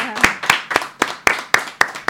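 Applause in a steady rhythm: about eight sharp, evenly spaced claps land roughly four per second, each crisp and bright, with no voices over them.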